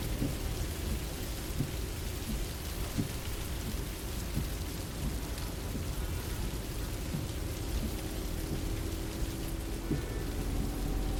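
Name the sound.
rain with thunder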